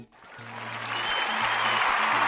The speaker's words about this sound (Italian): Rosen è stato esemplare per me cioè io voglio applaudire, applaudire, applaudire, regia, applaudiamo.